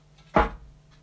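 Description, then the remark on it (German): A single drum kit pedal stroke lands as a dull, woody thud with a short low-end boom, then fades quickly over a faint steady hum, with no one talking. “Dann gibt es das Pedal. Das klingt so.”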